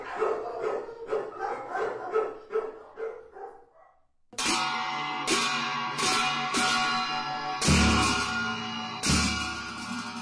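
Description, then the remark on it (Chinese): A dog barks continuously in rapid, repeated bursts that fade briefly, then return as a louder, denser stretch of barking with sharp onsets. There is no talking. “只有狗，依然在叫个不停。”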